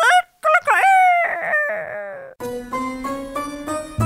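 A rooster lets out one loud, close crow lasting about two seconds, its voice rising and then trailing off, followed straight away by a sustained, rhythmic harmonic sound.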